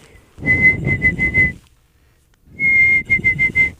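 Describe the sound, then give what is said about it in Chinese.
A rufous-capped babbler call, apparently whistled by a person in imitation: two short bursts of rapid, evenly repeated notes at a steady mid-high pitch, fairly loud, separated by a second of silence. “这就是山红头”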